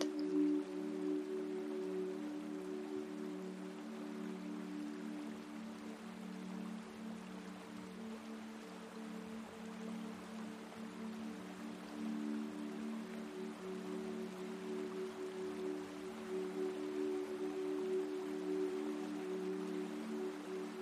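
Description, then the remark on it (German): Gentle, steady trickling of river water heard from a distance, continuous and soft, on a river where a small wooden boat drifts along, with a low sustained hum layered underneath and no voices. “hörst du von weitem ein Plätschern und siehst, wie ein kleines Holzboot auf dem Fluss entlang treibt.”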